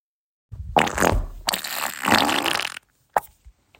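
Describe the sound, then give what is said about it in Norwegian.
A long, loud, sputtering fart rumbles and crackles for about two seconds, then a brief pause and a short final squeak, with no talking. “hvis du har lyst til å sende inn uh, dine fiser”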